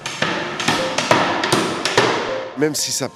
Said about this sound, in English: Even though hammering seems ah, brutal at first, with all the noise and dust, euh, it's totally the opposite.